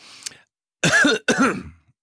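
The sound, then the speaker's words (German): Two loud, harsh coughs in quick succession, with a raspy, throaty edge, preceded by a faint brief rustle. No one talks. “entwickeln Ehrgeiz beim Husten.”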